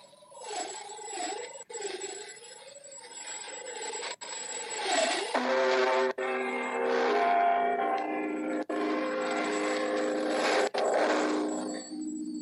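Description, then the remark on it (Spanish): Big Ben's bell chimes at midnight 15 Greenwich time, broadcast by the BBC from London, ring out through heavy hiss and rasping static, a wavering tone first, then deep bell strikes with long, humming overtones that overlap as each new stroke sounds. “Y comenzamos con las campanadas del Big Ben que medianoche 15, hora de Greenwich.”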